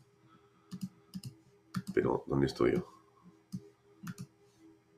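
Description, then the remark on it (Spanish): Sharp, scattered clicks of a computer mouse and keyboard tap out at an uneven pace while a man briefly speaks in the middle, as he tries to close a window to continue a video. “Tengo demasiados clics en este momento.”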